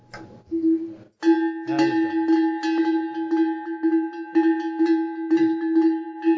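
A small metal picote livestock bell (cencerro) rings steadily, clanking in quick repeated strikes with a sustained bright, tuned ring carrying between hits after a brief pause near the start.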